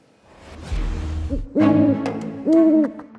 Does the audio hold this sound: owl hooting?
yes